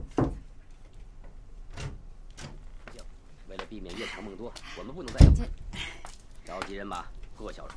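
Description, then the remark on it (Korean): The door of the manager's room at the Seonam dormitory opens with a few sharp clicks and rattles, followed by a heavy thud; faint voice-like murmuring runs quietly underneath. “채율이 선암학사 관리자실 문을 열자 사감은 여느 때처럼 침상에 비스듬히 누워서 중국 무협 드라마를 보고 있었다.”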